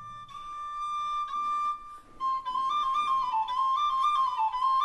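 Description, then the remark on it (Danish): A flute plays alone in a church, holding a long steady note before moving into a lilting melody of shorter stepping notes, clear and fairly loud throughout with no voices. “besøg i kirken og haft en fløjte med, og så ligesom sagt, prøv lige at høre her, forestil jer de her bønder, der går herop, altså der, det ligger jo højt, og det blæser altid herop.”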